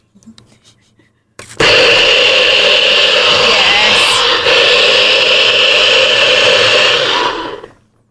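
After a quiet moment, a blender roars to life and whirs loudly and steadily for about six seconds, with a brief dip midway, before winding down as it blends a smoothie.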